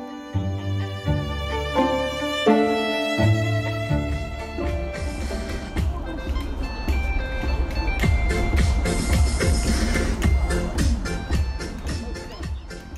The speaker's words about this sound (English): What you heard is party music for some elderly folks in Shanghai. It's 5 pm on a Monday. About a dozen elderly men and women were already gathering at a leafy downtown streetside park in Shanghai to get ready for one of their routines